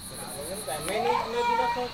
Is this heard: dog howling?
no